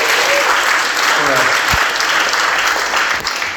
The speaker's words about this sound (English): Let's just give God a round of applause for providing.